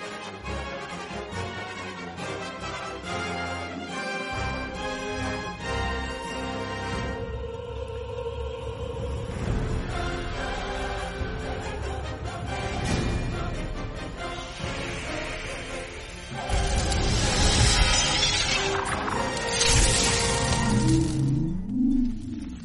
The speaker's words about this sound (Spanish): La música, ahí estamos obviamente escuchando algo de la música, le voy a subir un poquito para que podamos escuchar.